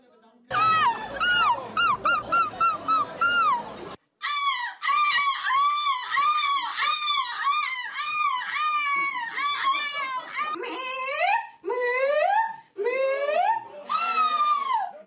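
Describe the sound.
Contestants at the European seagull-cry imitation championship in La Panne, Belgium, imitate seagull cries in a loud, nearly continuous run of shrill, wavering calls that rise and fall, broken by a few short pauses toward the end.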